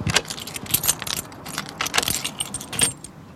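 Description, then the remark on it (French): A bunch of keys jangles and clinks in repeated bright, metallic bursts over a few seconds, with a low rumble underneath, while the door of Notre-Dame de Reims cathedral is unlocked from its icy, wind-swept forecourt; no one speaks. “vous allez ouvrir la porte pour nous”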